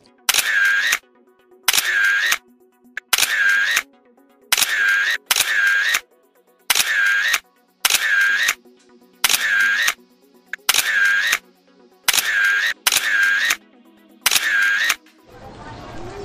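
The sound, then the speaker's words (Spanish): A camera snaps photos of people posing with a sign reading 'Cáceres Patrimonio de la Diversidad': about a dozen sharp, bright shutter bursts at a steady, evenly spaced rhythm, ending with a brief rush of softer noise. “Oye, por cierto, espera, vamos a ponernos el cartel y nos hacemos una fotito.”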